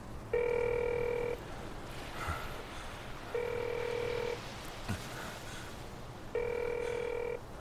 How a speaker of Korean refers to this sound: 제발 받아라. 받아. 신호음이 길어져 음성 사서음으로 넘어가기 직전 저 너머에서 목소리가 들려왔다.